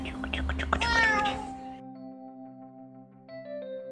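A pet cat named Lucy gives a drawn-out, wavering meow for about a second and a half, then it fades into soft, steady sustained musical tones.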